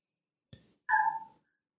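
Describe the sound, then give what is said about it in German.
A small dog outside lets out one short, high-pitched yip, fairly faint, just after a soft knock. No one is talking. “Hab ich gerade kleinen Hund gehört? Das kann gut sein, hier hat gerade draußen einer, einer gebellt.”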